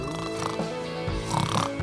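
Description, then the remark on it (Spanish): A person imitates loud snoring with their voice, producing rough, rattling snorts with a harsh, buzzing tone. The noisy exhalations last under two seconds and are prominent, with no actual talking. “Respete, no sé si tú has escuchado, si has dormido eh, eh, eh, en, una de tus vacaciones con alguien que ronca así.”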